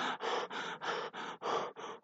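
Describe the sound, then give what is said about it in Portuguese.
A voice imitates the heavy, rapid panting of a deer being chased, about seven harsh breathy gasps in quick, steady succession, fairly loud, like an exhausted animal catching its breath. “assim, como suspirando, estarei muito agitado e enviado assim quando ele está assim, porque porque ele está sendo perseguido.”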